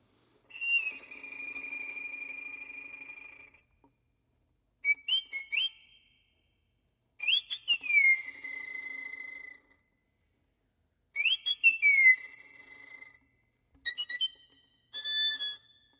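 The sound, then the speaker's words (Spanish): A violin imitates a small bird's song in high, whistling tones in a work by Romanian composer George Enescu: a long held note, then short chirping phrases with quick upward and downward slides, separated by brief pauses, played alone without talking. “que es de Enescu, de George Enescu, un compositor rumano que escribe a través de su escritura se accede al sonido de un pajarito que él escuchaba de pequeño, es así.”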